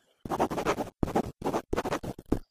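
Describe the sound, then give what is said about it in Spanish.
A pen scratches across paper, writing a note to the cook with paper and pen taken from the kitchen counter, in a quick run of short, bursty strokes, five or six scribbling bursts with brief pauses between them, fairly loud with no voices. “El espíritu de Maradio coge un papel y un bolígrafo que había encima de la encimera de la cocina y le escribe una nota al cocinero.”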